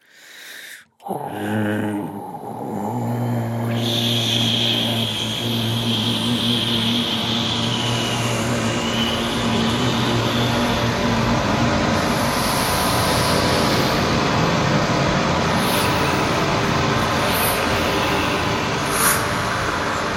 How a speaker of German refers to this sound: und dann wurde das eben abgespielt und, und, und irgendwie verschiedene, äh, verschiedenes Rauschen so übereinander, leise, laut, bla und blub. Und, das hört ähm, sich dann im Endeffekt so an.